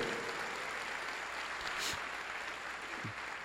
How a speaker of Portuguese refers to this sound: Então nós vamos, vamos dar um aplauso. Vamos, igreja, vamos, igreja.